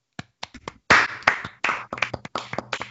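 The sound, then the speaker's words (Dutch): A short burst of applause from a small group, starting with a few scattered claps and quickly swelling into denser, overlapping clapping that stays fairly loud. “En ik wil graag daarvoor alvast een applaus.”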